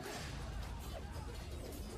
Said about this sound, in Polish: Tutaj był cios z Kujawiaka.